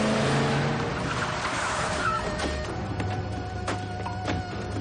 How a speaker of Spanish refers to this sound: Dani detiene en seco su vehículo y comienza a recular en medio de la carretera. De pronto se introduce en un callejón.